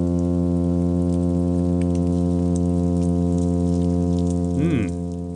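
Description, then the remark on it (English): A plainfin midshipman fish hums in a steady, continuous low drone with strong layered harmonics, loud and unbroken throughout, with a brief rising-falling warble near the end, recorded along the California coast. “Okay, here's a hum sound produced by the plain fin midshipman.”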